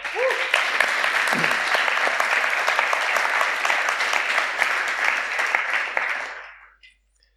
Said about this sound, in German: Und die sind ganz spontan ein, eingesprungen und da dürfen wir dem mal einen Applaus geben, oder?